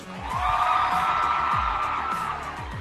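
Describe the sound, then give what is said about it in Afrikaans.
An audience at Hoërskool Eldorein applauds and cheers for CANSA, the cancer association, in a loud, steady roar that holds for about three seconds, with scattered whoops rising out of the noise before it begins to ease off. “Kom ons gee vir hulle groot applous.”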